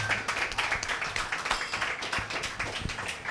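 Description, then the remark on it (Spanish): A crowd applauds steadily for a few seconds, many hands clapping at once into a dense, crackling wash of sound with no voices standing out. “Un aplauso. un para aplauso ella, por, favor.”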